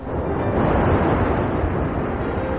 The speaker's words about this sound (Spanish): caminan junto al mar con los zapatos en la mano. Eluden una ola.